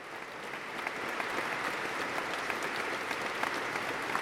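An audience applauds steadily, many hands clapping in a dense, continuous wash of bright crackling claps that swells slightly after the start and then holds at an even level, with no voices.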